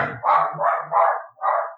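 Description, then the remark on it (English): A dog barks four times in quick succession, loud, with short gaps between the sharp, rough barks and no voices around them. “Yeah, dogs are dogs are upset about it.”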